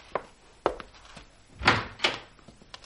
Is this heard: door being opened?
yes